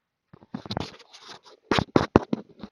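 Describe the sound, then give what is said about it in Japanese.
Scratchy rubbing and tapping bursts from a finger brushing against an earphone's built-in microphone, recorded through that microphone into an iPhone voice memo as a call-quality demo, irregular and uneven, louder clusters near the end with no speech. “イヤホンのマイク触ると入ってます。”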